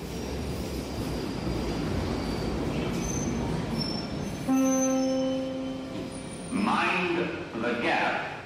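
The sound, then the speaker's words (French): A train carriage rumbles steadily along the rails, then a sustained metallic squeal of wheels rises partway through, with softer screeching bursts near the end. “J'ai presque envie de sauter de joie et je dois avoir un sourire immense en entrant dans le wagon.”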